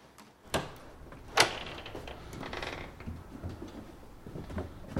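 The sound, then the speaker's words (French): A door opens with a couple of sharp clunks, the loudest at about a second and a half, followed by a soft scraping rustle and quieter knocks, with no voices. “Et puis, encore une porte.”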